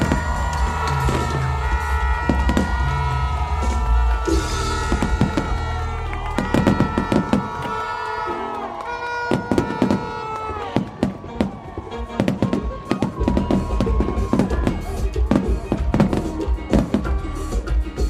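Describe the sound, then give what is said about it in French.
A fireworks display closing the Camporé bursts in rapid, irregular bangs and crackles, loud and continuous over a steady background rumble, with faint crowd noise mixed in. “Après une belle journée de sabbat, le Camporé a refermé ses portes comme il avait commencé par un magnifique feu d'artifice.”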